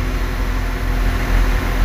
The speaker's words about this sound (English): As you can hear, one of the very, very loud TransLink Northern, Ireland, Northern Irish trains uh, on the other platform.